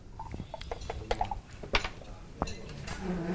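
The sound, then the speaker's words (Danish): Dice rattle and clatter inside a dice cup, a quick series of hard little clicks and knocks, followed by a sharper tumble as they are thrown out to pick a question from a list. No one speaks. “Og jeg har et raflebær her. Lisa, vil du ikke starte med lige at kaste en terning?”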